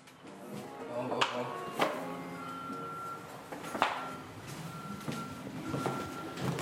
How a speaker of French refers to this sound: Ah, j'adore cet ambiance-là. Hein. le camion, la petite musique, je paradis. c'est sur Saint-Laurent, donc il va avoir la circulation, il va avoir les petits klaxons, il va avoir le petit brouhaha du, euh, des passants.